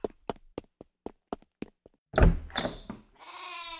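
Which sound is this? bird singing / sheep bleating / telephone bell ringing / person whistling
sheep bleating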